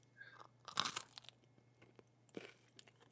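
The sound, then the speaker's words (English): Someone chews crunchy food, with two sharp crunching bites and softer crackles in between, alone against a quiet background with a faint low hum. “What is he eating? It's a crunchy.”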